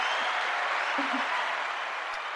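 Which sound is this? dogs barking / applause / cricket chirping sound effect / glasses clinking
applause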